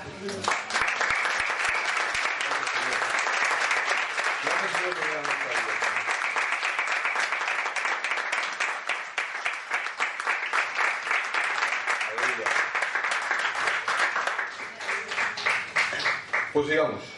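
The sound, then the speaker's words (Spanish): A crowd at a church sermon applauds steadily for about seventeen seconds, a dense, loud wash of many hands clapping, with a few voices faintly calling out underneath. “Y ahora yo os pediría que le diéramos un fuerte aplauso.”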